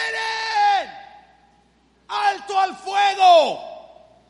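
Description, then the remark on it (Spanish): A man's voice imitates the loud shout of a man in a war who laid his weapon on the ground and left the trench: one long drawn-out bellowing yell that trails off, then after a pause a second burst of several strained, shouted syllables, forceful. “Y yo me imagino, porque la historia ni siquiera la dan con tanta claridad, pero yo me quiero imaginar que este hombre gritó muy fuerte.”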